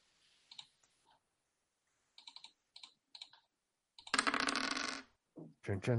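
Coins clink metallically in several small clusters of sharp taps, followed by a louder, longer jangling rattle as they spill together, with a brief voice at the very end.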